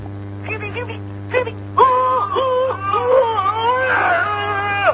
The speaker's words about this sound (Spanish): Se deben escuchar más politonos curiosos.